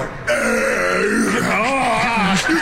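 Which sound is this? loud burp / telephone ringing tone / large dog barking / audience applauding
loud burp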